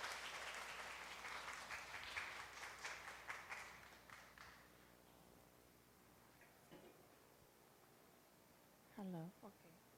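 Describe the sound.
An audience applauds with dense, overlapping claps that fade out after about four seconds, followed by near silence and a brief voiced sound near the end.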